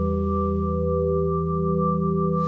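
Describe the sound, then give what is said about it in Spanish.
A song plays with steady, sustained synth-like tones and a deep, droning low end, held at an even, moderate loudness. No voice is heard. “Pues este mundo que te has inventado suena más o menos así.”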